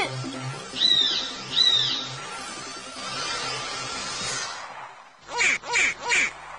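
A caiman calls with two nasal, honking cries, then a noisy rumbling stretch, then three quick, sharp calls in a steady rhythm. The calls are fairly loud, and no one speaks.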